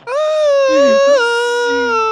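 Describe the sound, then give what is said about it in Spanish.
A voice imitates a night-shift guard crying: one sustained, wavering wail with a strong pitch that dips and rises, loud, lasting about two seconds. “Es y el man en turno de noche así, llorando.”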